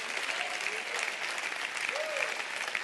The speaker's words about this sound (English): Come on, clap your hands all over the house.